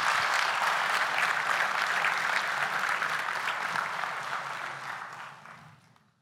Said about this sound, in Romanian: Haideți să o aplaudăm pe ea și pe toți care